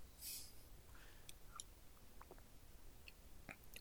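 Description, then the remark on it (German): Someone takes a sip of a very sweet soft drink, brownish and red against the light, smelling of mouthwash, heard quiet: a short slurp at the start, then small wet mouth clicks and a swallow, with no talking. “Und ja, ich nehme einen Schluck jetzt.”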